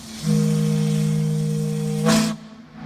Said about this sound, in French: Le son des bateaux vapeurs du Mississippi. Les bateaux à aube façon Tom Sawyer qui partent des rives du fleuve à la Nouvelle-Orléans.